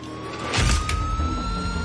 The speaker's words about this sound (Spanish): El furgón emprende la marcha desde el centro penitenciario. Le acompaña un coche oscuro que lleva una sirena policial.